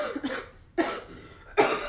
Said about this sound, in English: oh my gosh, I told you not to cough. I told you I wasn't gonna be able to do this. You are purposely you, coughing. No, I'm not. I legit have something.